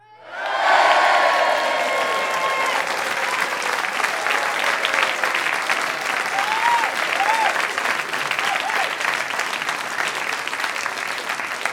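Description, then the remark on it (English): A large audience breaks into loud, sustained applause and cheering as a guest is introduced, with scattered whistles and whoops rising over the steady clapping for about eleven seconds. “Guys, give it up for Nicholas DiLorenzo.”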